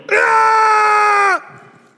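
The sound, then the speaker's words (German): A person screams loudly and steadily for just over a second to scare off a bear, a harsh sustained yell that cuts off abruptly, leaving a faint trailing echo. “Was du machen musst, stell dich hin, bleib ruhig, mach dich so groß wie möglich und schrei.”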